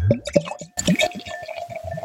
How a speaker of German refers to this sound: Aber ich mache es vielleicht erstmal auf. So, und dann kommt das natürlich jetzt noch ins Glas.